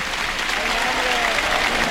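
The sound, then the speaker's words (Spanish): A standing bullring crowd bursts into a sustained, loud ovation for a great pair of banderillas placed by banderillero Raúl Cervantes, a dense steady wash of clapping with a murmur of voices mixed in, holding at full strength without pause. “El público que inmediatamente ha respondido. de pie el público. ¿eh? está en pie, eh, merecidísima la, ovación.”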